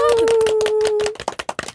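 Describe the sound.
Quick, steady hand clapping applause welcoming a guest, about a dozen sharp claps in a brisk rhythm. A sustained voice rings out over the first half, then the claps continue alone, loud and crisp.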